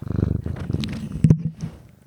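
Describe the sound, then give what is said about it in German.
A domestic cat that has jumped onto a desk purrs, a steady rhythmic rumbling pulse with a few soft rustles and a brief louder bump partway through, no talking. “ist, wie man unschwer erkennen kann, gerade auf meinen Schreibtisch gehüpft und möchte offensichtlich das Ende dieser Folge einleiten.”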